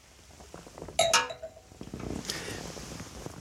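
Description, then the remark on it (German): Wine glasses clink together in a toast, one bright ringing touch followed quickly by a second, with a brief shimmering tail and quiet rustle afterward. “Zum Wohl, freut mich. Zum Wohl.”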